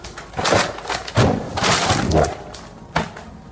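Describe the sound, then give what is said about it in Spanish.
Several dull, papery thumps land on a hard surface at irregular intervals as giant bundles of cash are set down on a table, in what are presumed to be offices of the Senate of the Republic, in a video tied to the Emilio Lozoya case, with faint background murmur between them. “Este es el sonido, escucha usted al fondo, de cómo eh, entre ellos están poniendo fajos gigantescos de dinero en efectivo en una mesa.”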